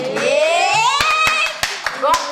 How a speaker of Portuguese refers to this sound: Ó, é pra aplaudir de pé igreja.